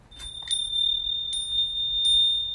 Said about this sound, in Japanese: そう、この音を作るのが、この鉄で作られてる風鈴なんだよね。私はね、この南部鉄器で作られている風鈴の音が大好きなんです。